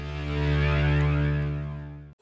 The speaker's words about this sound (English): Sorry about the noise. My neighbour's sanding his deck.